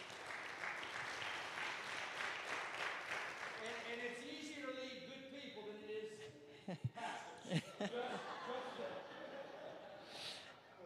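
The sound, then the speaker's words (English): An audience at Grace Church breaks into steady applause, a dense wash of clapping that gradually thins as voices rise above it, with a few sharp, louder claps near the end. “I think what really deserves the applause of those 275 churches, we consider and know it to be a fact Grace Church yes.”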